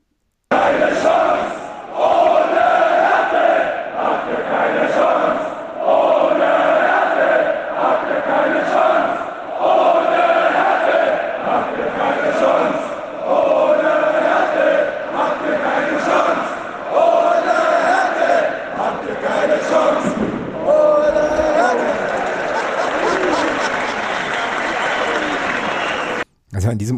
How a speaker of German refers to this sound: aber bis wir dazu kommen, ähm, gibt es hier noch einen kleinen Stadion-O-Ton, der ganz gut anschließt an deinen O-Ton, glaube ich.